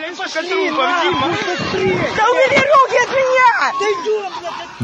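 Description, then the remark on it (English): A chaotic crowd commotion at a railway station in Kramatorsk, Ukraine, in the immediate aftermath of a rocket strike in 2022. Many overlapping, agitated voices are heard, and a woman's raised voice stands out above the din, shouting that there are children among the dead. It is loud throughout. “A woman can be heard shouting that there are children among the dead”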